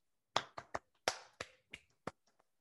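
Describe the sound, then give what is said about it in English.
A short, sparse round of applause for Nelson Cruz hitting another home run: about eight sharp claps in an uneven rhythm, fading toward the end, with no voices. “Can we get a round of applause?”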